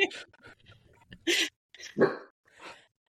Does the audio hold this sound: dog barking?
yes